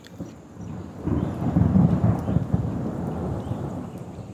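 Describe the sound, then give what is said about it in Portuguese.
A thunderstorm with heavy rain in the Pantanal's summer rainy season: a deep rumble of thunder swells after the first second and rolls on over a steady hiss of downpour, full, with no voices. “o Pantanal possui duas estações: a estação chuvosa, que ocorre no verão, e a estação seca, que é no inverno.”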